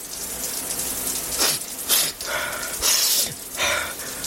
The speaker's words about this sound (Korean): 남자는 비위가 상한 나머지 샤워기의 수압을 높였다.